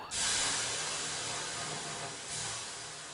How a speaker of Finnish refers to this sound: Ja nyt heitämme hieman löylyä.